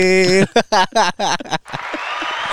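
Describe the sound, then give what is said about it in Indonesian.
A voice calls out in short, bright bursts, then a crowd breaks into dense, steady applause, many hands clapping together in an even wash of sound that holds to the end. “Wes ada yang tepuk tangan mantap.”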